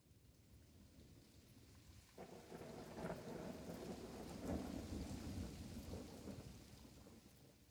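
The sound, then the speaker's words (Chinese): Heavy rain pours steadily as thunder rumbles in, swelling after about two seconds into a long, rolling roar beneath the dense hiss of the downpour. No one speaks. “从电车里往外看时，窗外的细雨如丝，但一走出检票口，雨却大了起来，成了名副其实的雷阵雨。”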